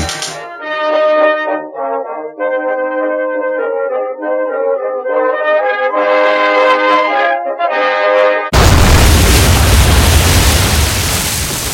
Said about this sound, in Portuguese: foi quando ocorreu uma grande explosão. As luzes se apagaram e o pânico começou.